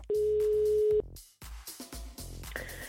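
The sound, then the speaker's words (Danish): A single steady telephone ringing tone sounds loud for about a second, then cuts off; after a brief pause, a faint, muffled voice-like sound follows on the line. This is an outgoing phone call ringing through to a voicemail. “Men øh, lige nu, der skal jeg ringe til hende for at lægge en besked på hendes telefonsvar og lige opdatere hende på, øh, hvordan tingene går herhjemme og hvad der er, der, der sker.”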